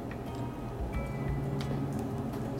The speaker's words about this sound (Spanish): Ah, ahora, listo con la ensalada y terminamos con un poquito de queso. Lo vamos a rallar